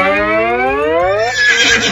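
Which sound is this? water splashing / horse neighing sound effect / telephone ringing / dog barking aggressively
horse neighing sound effect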